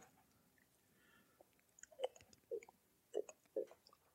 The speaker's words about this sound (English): And I'll let you leave me be able to hear the sw- me swallowing there to get ready for it.